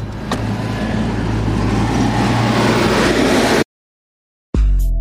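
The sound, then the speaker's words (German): Dense, steady rumble of engines and heavy machinery in the yard of the seaport of Brake, with huge halls, cranes, excavators, freight trains and forklifts, loud for several seconds, then it cuts to silence before a short tonal sound begins. “Riesige Hallen, Kräne, Bagger, Güterzüge.”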